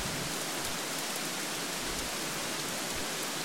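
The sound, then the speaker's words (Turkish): Steady rainfall in the Amazon fills the air with a dense, even hiss and faint patter of drops, continuous, with no voices or other sounds. “Yağmurun sesiyle Amazon sana ulaşsın kalbine.”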